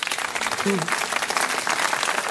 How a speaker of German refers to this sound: Einen herzlichen Glückwunsch und einen großen Applaus für Juri Andruchowitsch.